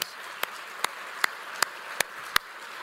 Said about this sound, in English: And I want to give him a round of applause.